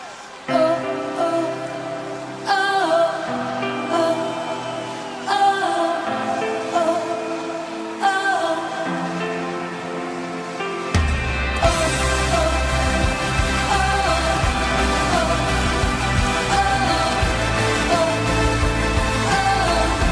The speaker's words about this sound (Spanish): Escuchemos con qué canción ganó Azerbaiyán.